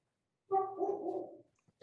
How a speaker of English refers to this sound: In the distance, a dog barks.